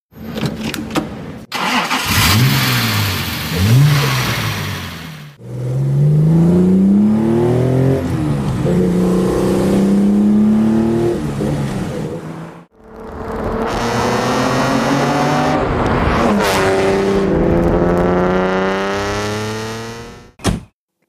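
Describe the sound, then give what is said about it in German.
Two different cars: a sports car engine, like a Porsche 911, revs hard through several rising and falling bursts, then an old car, like an old Fiat with a broken exhaust, rumbles and revs with a rougher, coarser tone. No one speaks. “Der erste, das war wie so ein 911er und dann hinten raus war es aber ganz was anderes.”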